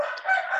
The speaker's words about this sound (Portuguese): Gente, vocês podem perceber que eu estou na roça mesmo, né? Vocês estão ouvindo o galo cantando aqui bem pertinho de mim.